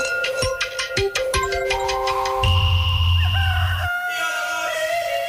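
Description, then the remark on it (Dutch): A telephone rings with a loud electronic tone: a quick run of sharp pulsing beeps, then sustained warbling tones that rise and shift in pitch, with no one talking. “U heeft telefoon.”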